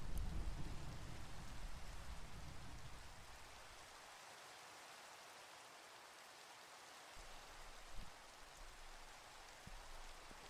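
Steady, hissing rain falls throughout, with a deep roll of thunder rumbling in the first few seconds before fading away. No voices, just the soft, even wash of rainfall.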